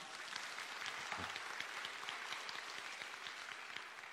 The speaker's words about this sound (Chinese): 来点掌声哈！